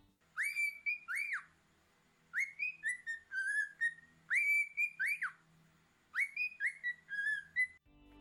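A cockatiel, a parrot of the cockatoo family, whistles a well-known tune alone, clear, repeating the same short melodic phrase four times with brief pauses between, its bright tones sliding up and down.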